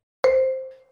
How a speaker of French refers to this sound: Oh, bah, ah non, c'est vous qui faites du bruit, je crois que c'était mon téléphone.